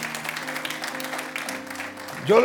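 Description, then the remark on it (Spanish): A church audience applauds the Lord steadily for a couple of seconds, a dense crackle of many clapping hands over a low sustained keyboard tone, before a voice rises sharply above it at the end. “Mire, yo lo dije el otro día, denle un aplauso fuerte al Señor, si se lo va a dar.”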